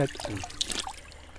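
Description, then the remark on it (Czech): Splashing and trickling as a hand scoops water from a stream of drinking-water quality, home to freshwater pearl mussels, and drinks: a brief burst of liquid sounds lasting about a second, with a short vocal murmur at the start. “Celý den vám tady říkám, ta perlortka je tu, protože ty parametry jsou pitné vody. Proto já se tu můžu napít.”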